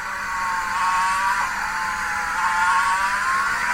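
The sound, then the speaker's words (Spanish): A racing car's high, whining engine drops in pitch as it slows after a short straight into the chicane at turns 5 and 6, then climbs again briefly, steady throughout with no voices. “Otra vez va a bajar la velocidad, pequeña recta y chicana 5-6.”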